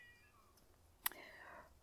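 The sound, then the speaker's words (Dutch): A restless female cat meows insistently, a thin drawn-out cry followed by a sharp click and then another wavering meow, fairly quiet, with no talking. “Nou ja, de kippen zijn in ieder geval rustiger eh, dan eh, de kat op dit moment.”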